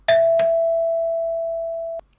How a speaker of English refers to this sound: I've pressed her doorbell and I'm putting you on speaker.